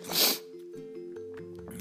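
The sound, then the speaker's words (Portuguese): A single sharp, breathy nasal sniff from a person with rhinitis, followed by a quiet, steady tonal hum in the background. “desculpa, viu, pelas fungar, pelas. do nariz assim aqui. Rinite.”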